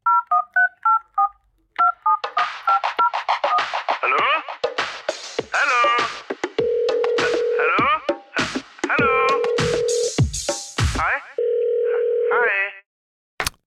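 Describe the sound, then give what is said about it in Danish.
A quick run of about eight touch-tone keypad beeps dials a number for an outgoing call to a man who wrote in about a car dilemma, followed by a busy stretch of chirpy, meow-like sounds over which a steady ringing tone sounds three times. “Det er nemlig vores nye segment, hvor vi ringer ud i verden til vores allerbedste venner.”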